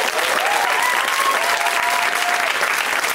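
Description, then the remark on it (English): Loud, sustained applause from a sizable comedy-show audience for all the comics who performed, a steady dense wash of clapping with a few faint whoops or cheers rising above it. “Let's hear for all the comics that you saw.”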